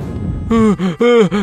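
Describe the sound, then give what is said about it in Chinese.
A voice imitates the heavy panting of the story character Hengheng Pig, worn out after running on six legs: four quick, loud, voiced breaths in an uneven rhythm, following a short stretch of low rumble with no talking. “哼哼猪累得直喘气。”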